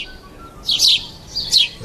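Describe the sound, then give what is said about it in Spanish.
A small songbird chirps twice in quick, bright bursts, a pause between them, clear over a quiet background with no one talking. “A ver, ¿el mejor amigo del hombre son los pajaritos?”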